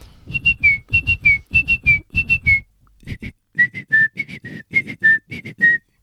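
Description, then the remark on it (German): A person whistles an imitation of birdsong, short chirping notes in quick groups of three, repeated in a steady rhythm after a brief pause, fairly loud with no talking. “Warum imitieren Sie Vogelgezwitscher”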